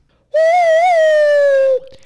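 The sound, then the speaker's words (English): A single sustained, hollow whistle blown through cupped hands, loud, holding a steady low pitch with a slight wobble for about a second and a half before stopping abruptly. “I can do that with my whistle, hands.”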